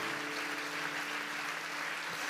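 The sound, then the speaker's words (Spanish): An audience applauds steadily, a dense wash of many hands clapping at an even, sustained level with no one speaking. “Dale fuerte ese aplauso porque es nuestro ADN como iglesia, el encuentro.”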